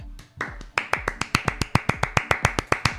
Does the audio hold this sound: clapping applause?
yes